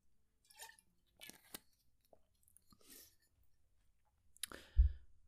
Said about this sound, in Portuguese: E agora, eu acho que era aproveitar para já aproveitar para beber água.